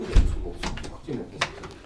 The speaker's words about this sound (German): Tür zu, Tür auf. Zu.